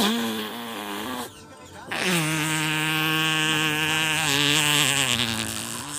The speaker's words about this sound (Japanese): おならきちゃった